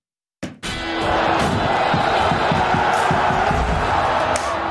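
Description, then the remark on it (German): A sudden burst of applause and cheering that the speakers give themselves at the start of a talk about the first Bundesliga matchday, with dense clapping and shouting voices that stay loud and steady for several seconds. “Wir geben uns selbst einen Applaus, weil wir es verdient haben.”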